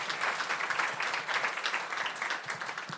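An audience applauds steadily, a dense, continuous wash of many hands clapping at an even level for the full three seconds, with no voices standing out, giving a warm welcome to the preacher's mother-in-law.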